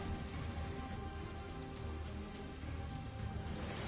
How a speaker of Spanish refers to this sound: La lluvia nos ha despertado a todos. Vientos, intensidad, inundaciones, caos.